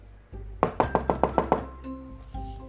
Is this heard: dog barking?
no